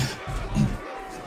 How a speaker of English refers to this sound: Okay, all right, all right. Uh, ladies and gentlemen, please, please, please stop booing. Please just let. Can we all just calm down a bit?